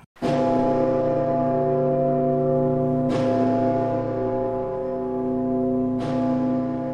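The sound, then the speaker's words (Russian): Heavy church bells of the Rostov Kremlin, by Lake Nero, toll loudly, struck three times about three seconds apart, each blow leaving a deep, rich hum that rings on without fading between strikes. No voices are heard. “Колокола ростовского Кремля, они еще и имена имеют.”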